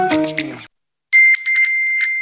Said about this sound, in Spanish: ¿Oyes eso? Son nuestros 21.000 propietarios recibiendo el aviso de que hoy ya han cobrado sus rentas.